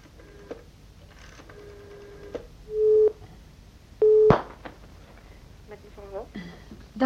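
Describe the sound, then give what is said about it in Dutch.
Telephone tones sound through a handset as a phone call is placed: a couple of steady beeping tones stand out between softer clicks and background hum, with faint voices in the background at times. “Ik eh, bel eigenlijk om eens te horen hoe het met je gaat.”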